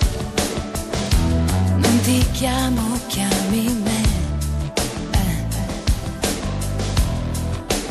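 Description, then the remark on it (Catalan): A loud, full-band Italian pop song, the original Italian version of a song then number one in Italy, plays steadily throughout, with a sung female vocal melody over driving drums, bass and keyboards. “nosaltres el que escoltarem és la versió original en italià, perquè en aquests moments és número 1 a Itàlia”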